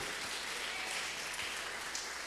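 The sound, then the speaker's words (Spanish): A church audience claps steadily as an offering of applause to the Lord at a morning service, a dense, even wash of many hands with no pauses and no voices over it, holding a constant moderate loudness throughout. “Así, dele una ofrenda de palmas al Rey en esta mañana.”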